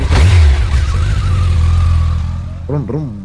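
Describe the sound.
A motorcycle engine revs hard, then holds a steady drone as it pulls away and gradually fades, with a brief voice-like sound near the end.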